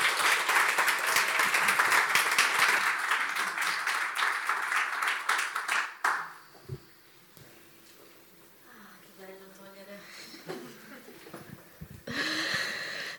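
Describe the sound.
A church audience breaks into loud, dense applause for about six seconds to welcome the next speaker, the clapping steady and sustained before cutting off abruptly; quieter murmurs and voices follow, with a brief swell of noise near the end.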